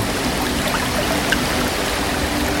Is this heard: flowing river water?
yes